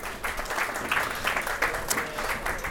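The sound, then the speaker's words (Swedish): Steady applause from an audience for Adam Bergmark Wiberg and Jesper Florén, a dense wash of many hands clapping at an even, moderate loudness throughout, with no voices standing out. “En applåd för Adam!”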